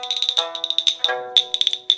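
A sanba, a set of hand clappers, sounded as a test for the mixing engineer before a live performance, in quick rhythmic bursts of sharp, bright clacks with a ringing high edge. About two dozen strikes, loud and alone, with no talking.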